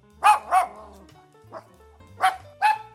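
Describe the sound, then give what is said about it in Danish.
The queen's dachshunds bark sharply in response to a man shouting: two quick yaps, a softer one after a pause, then two more loud barks in a rough, uneven rhythm over a low background hum. “Dronningens gravhunde begynder straks at gø, da de hører faren råbe.”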